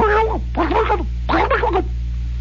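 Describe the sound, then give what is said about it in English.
A man's voice imitates a turkey gobbling in three quick warbling bursts, with a steady low electrical hum running underneath. “That's the sound of a turkey.”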